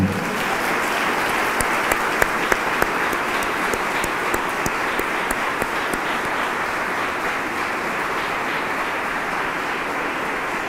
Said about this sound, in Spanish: Ahora sí podemos aplaudir.